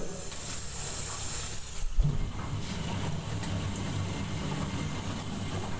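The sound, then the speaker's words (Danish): Steady, loud hissing and rushing of water inside an old ASEA Scandia Sylenda 8000 appliance from 1984, just switched on and running, with a low mechanical rumble underneath and a brief clunk partway through; no one speaks. “Der er gang i lortet her. Prøv at høre vandet.”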